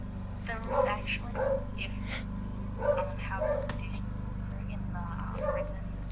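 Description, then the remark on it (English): A female dog barks loudly in three short clusters of sharp, yelping barks, slightly muffled, over a steady low hum. “My dog is loudly barking and is being very disrespectful because she does, she has really bad social anxiety and doesn't like when”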